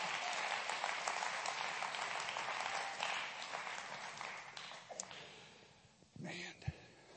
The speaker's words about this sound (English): Come on and clap your hands to the Lord and give Him praise right now.